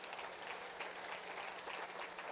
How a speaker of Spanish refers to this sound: ¿Cuántos dicen gloria a Dios a eso? ¿Le puedes dar un fuerte aplauso?